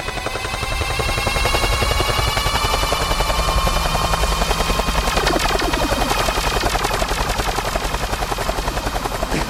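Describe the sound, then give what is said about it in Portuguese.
A loud helicopter sound effect with rapid, steady rotor chopping and a whining engine runs continuously from start to finish, unbroken, with no one talking. “Helicóptero!”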